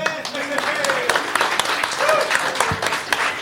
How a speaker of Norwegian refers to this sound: Han er da, Det er ikke sikkert det er så mange som vet det, men han er faktisk eh, personen som står bak Allsang på grensen. Stor applaus for det.